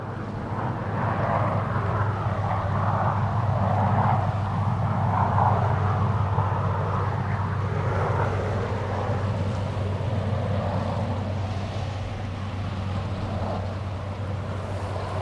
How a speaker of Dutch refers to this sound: Dat was een helikopter van de Argentijnse kustwacht.